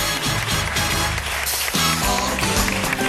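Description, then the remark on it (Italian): A loud, bright theme jingle of the Italian radio segment 'Occhio alla spesa' plays on its own, a full band with a bouncy bass line stepping between notes under dense, shimmering upper instruments, with no voices. “Che poi vogliamo dire che la puntata Occhio alla spesa sì. è solo una scusa per sentire la sigla.”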